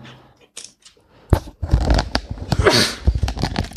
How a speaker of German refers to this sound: Sorry, ich muss immer zweimal niesen.